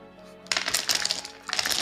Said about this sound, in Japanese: でこの音いいですよね。駒の音。はい。で、えっと、並べますね。